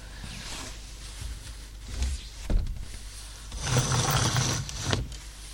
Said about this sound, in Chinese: 然后我现在是在窗台边录音，因为这样的话白噪音会比较多，比较适合入眠。但是好像有点太吵了，我我把窗户关上啊。